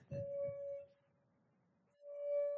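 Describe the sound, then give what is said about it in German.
A half-full glass of water sings with a steady, pure ringing tone, fades to near silence, then swells up again a moment later, fairly loud, with no voices. “Ja, ähm, wenn jetzt das Glas zur Hälfte gefüllt ist mit Wasser, dann ähm, schwingt auch wieder das Glas.”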